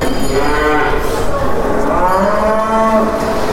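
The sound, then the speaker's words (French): A cow moos in long, drawn-out low calls, loud, over a busy backdrop of murmuring and clatter at a livestock show, in the clipping and preparation area for dairy cows and Holsteins ahead of a competition. “Alors je suis dans un endroit bien particulier, qu'est-ce qui se passe ici euh, ici c'est la zone de clipage, en fait c'est la zone de préparation pour, euh, bah, les vaches laitières et les Holstein pour le concours de lundi.”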